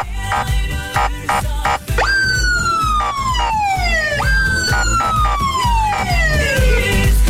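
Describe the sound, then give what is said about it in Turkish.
A loud siren sound effect, played on a radio show at a listener's request for Basmane Square in İzmir, wails in two long falling sweeps, each starting high and gliding downward, over a steady rhythmic thumping beat underneath; no one speaks. “İzmir Basmane Meydan'a bir siren alabilir miyiz açılsın demiş tabii ki.”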